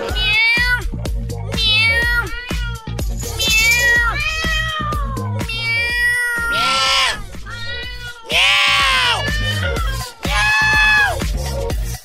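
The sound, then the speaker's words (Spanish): An angry cat yowls and meows over and over, loud, its drawn-out, wailing cries following one another almost without pause for the whole stretch. “De una gata enfurecida que no dejaba salir alguien de su casa.”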